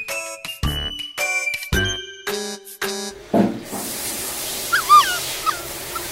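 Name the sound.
dog vocalizing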